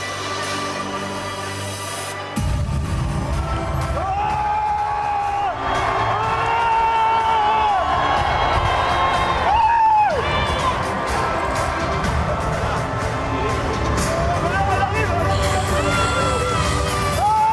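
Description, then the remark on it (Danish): A huge crowd of about a thousand people roars and cheers at a Marine Le Pen political rally in an echoing exhibition centre outside Avignon, France, with whistles and scattered shouts rising above the constant din after a brief quieter start. “Ja, det her det øh, finder sted i en slags messecenter uden for byen Avignon.”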